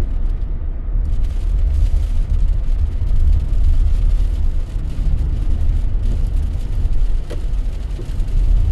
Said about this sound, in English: And come on, you stinking car! I wasn't even going off the road. I'm wide awake. Why the fuck are you turning to go that way? Stinking car.